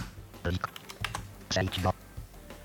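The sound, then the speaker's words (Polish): Keys clack on a PC keyboard in quick, irregular bursts, moderately loud, with short pauses between flurries of typing. “Natomiast jeżeli naprawdę bym czegoś potrzebował nagle z klawiatury PC,”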